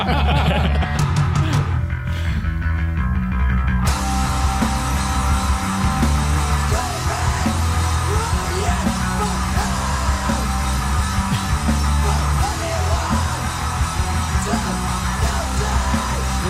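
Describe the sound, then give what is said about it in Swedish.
Harsh, raw screamed vocals ride over a loud, dense band with distorted guitars and pounding drums, the shouting continuous and strained throughout the full-volume metal track, which is somewhat like black metal. “Det är inget growl, utan det är bara stämbandsvrål.”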